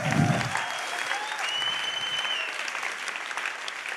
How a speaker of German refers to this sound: Ja, kann man auch mal klatschen.